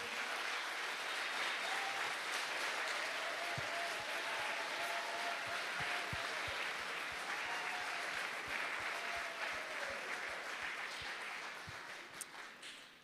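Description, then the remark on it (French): Sustained applause from a crowd for people who have been involved in the camps, a dense steady patter of many hands clapping for several seconds, with faint cheering mixed in before it begins to taper off at the end. “Puis, euh, on peut-tu les applaudir?”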